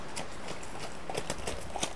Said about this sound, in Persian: بچه آقا اسبه داره یورتمه میره گوش کنی